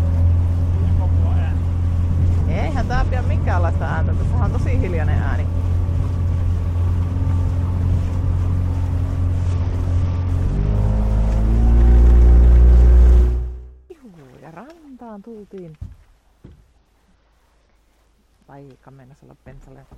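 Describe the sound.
A motorboat engine drones steadily and loudly on the water in sunny Finnish summer weather, rising to a heavier roar before cutting off abruptly, after which a voice talks over quieter surroundings.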